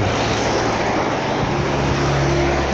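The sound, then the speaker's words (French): Steady, loud road noise from a car driving during a trip, with a broad rushing hiss over a low engine hum and faint tonal drones, continuous throughout with no talking. “Alors là, en roulant, bah, je me suis dit, voilà, pendant mon trajet, j'ai rien d'autre à faire.”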